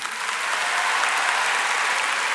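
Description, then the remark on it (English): A crowd of 15- to 18-year-olds claps together in a steady, dense burst of applause, many hands at once, sustained at an even loudness for a couple of seconds with no one speaking, clapping to show they see a young lady looking into the distance in an image. “If you see a young lady kind of looking into the distance, give me a clap.”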